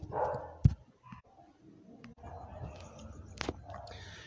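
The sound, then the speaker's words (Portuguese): Dogs bark in the background, a few sharp, scattered barks amid low household noise, fairly faint, with no one talking. “Perdão os cachorros no fundo.”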